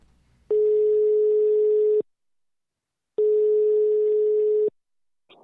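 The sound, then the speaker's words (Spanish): A telephone line rings with two long, steady electronic tones, each lasting about a second and a half with a pause between, loud and clear with no talking, as a call connects. “Bueno, vamos entonces a escuchar la comunicación.”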